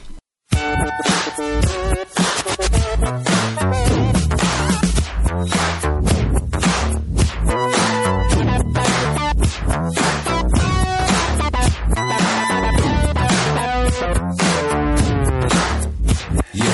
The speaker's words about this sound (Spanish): una canción de funk que mm, pues eso mezclaba toques electrónicos